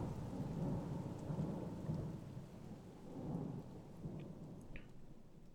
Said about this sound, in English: But no sooner had he said these words than a terrible flash of lightning lit up the somber room. A fearful peal of thunder made them all start to their feet and Mrs. Umney fainted.